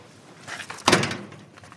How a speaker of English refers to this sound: And that was the door shutting behind us and deleting all the data that they've collected.